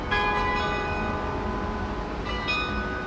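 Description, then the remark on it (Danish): Church bells ring over Copenhagen with sustained, overlapping tones, fresh strikes landing near the start and again toward the end, all over a steady low rumble of rush-hour city traffic, wind and rain. “nu slutter den altså op over hovederne på intetanende københavnere, der er på vej hjem fra arbejde i myldretidstrafikken, mens klokkerne blander sig med støjen og blæsten og regnen.”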